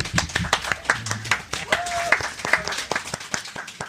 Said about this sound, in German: Einmal Applaus für Stefano, bitte.